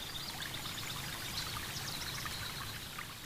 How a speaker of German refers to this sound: Fröhlich sprudelt das Wasser der Quelle auf einen sehr großen Stein, der schon völlig ausgehöhlt ist von dem Wasser. Im Laufe der Zeit hat sich hier ein großes Becken gebildet, das angefüllt mit kristallklarem Wasser ist.